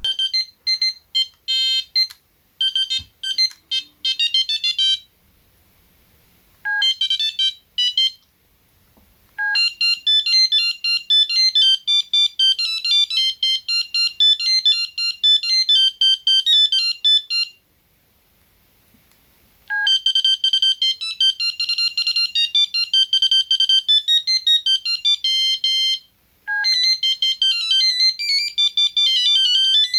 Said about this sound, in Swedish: Och det där var några av mina favoritringsignaler på den tiden som jag gillade från den telefonen jag hade.